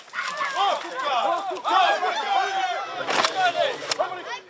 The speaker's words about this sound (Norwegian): Dette var lyden av ei samla vekt på to tonn med okser som deisa inn i det provisoriske gjerdet laga av europaller.